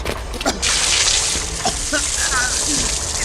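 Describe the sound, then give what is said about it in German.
Water suddenly bursts out of a hose and keeps gushing in a loud, steady hissing rush, with brief faint voice sounds mixed in beneath the spray, as the hose is used to put out a burning stack of car tires. “Wassermarsch!”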